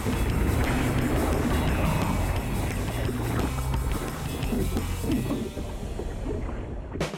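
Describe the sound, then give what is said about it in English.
Small ocean waves wash and churn in front of the Royal Hawaiian in Hawaii as surfers paddle out, a steady rush of water mixed with wind buffeting the microphone, continuous for several seconds with no voices. “We paddled out in front of the famed Royal Hawaiian to catch some barrels. Okay, so the waves were tiny, but they were just right for us.”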